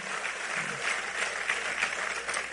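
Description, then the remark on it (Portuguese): A church audience applauds the Lord steadily, a dense wash of many hands clapping at an even level with no voices standing out. “Pode aplaudir o Senhor por essa igreja, né?”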